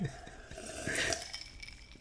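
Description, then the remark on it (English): A quick, soft slurp of someone sipping a drink, with faint clinks of a glass around it and a brief breathy swallow; no one speaks. “Let me take a sip.”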